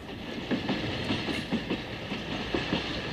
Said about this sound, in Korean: 2시가 가까워질수록 가슴은 두근댔고 드디어 2시 아저씨를 태운 기차가 나타났죠.